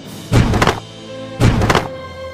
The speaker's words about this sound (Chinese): 比尔真的一脚踹开大门，冲到楼上他们三人面前。